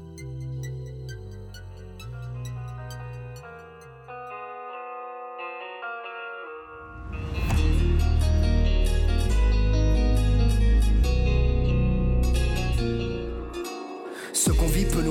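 Instrumental intro of a rap track: a soft, melodic keyboard-like line with echoing effects, then a loud beat with heavy bass and drums kicking in halfway through. No vocals yet.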